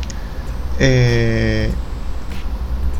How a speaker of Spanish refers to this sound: y se va a escuchar un poco de viento de fondo porque está, ventoso el día, estoy en un piso alto y, se escucha.